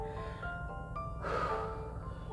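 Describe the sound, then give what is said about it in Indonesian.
A single deep breath drawn in, a soft airy rush lasting under a second, over a quiet bed of steady sustained tones. No one speaks. “dan ketika gue udah narik nafas dan selesai gue ngerasa udah lebih tenang baru gue buka mata gue terus biasanya gue akhiri dengan tarik nafas panjang sekali”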